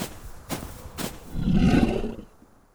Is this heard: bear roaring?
yes